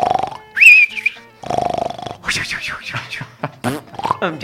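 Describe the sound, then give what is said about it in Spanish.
A voice mimics snoring with a few drawn-out, rasping breaths, followed by a burst of chirpy, squeaky vocal noises and laughter-like sounds, fairly loud. “Cuando me toca un show a las 12 de la noche, sí, se terminó el show y el burro para la casa a roncar.”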